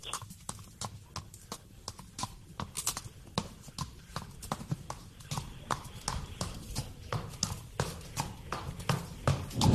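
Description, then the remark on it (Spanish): Horse hooves trot in a steady clip-clop rhythm, sharp knocking steps repeating quickly and evenly for the whole stretch, fairly loud with no one talking. “Parece un caballo pero, pero a lo mejor no lo es, es un efecto de sonido.”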